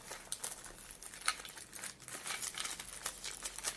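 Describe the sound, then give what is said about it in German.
Crinkling and rustling of plastic packaging as a casing is unwrapped from its plastic wrapping, with irregular bursts of crackle and a brief tearing sound, no talking. “Das Gehäuse ist auch nochmal verpackt. Das mache ich mal auf.”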